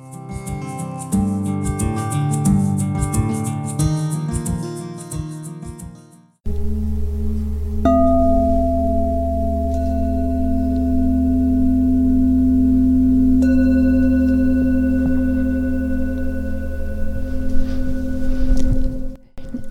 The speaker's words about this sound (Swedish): Och hur det kan faktiskt låta också. Exakt. Med precis. de här klangskålarna.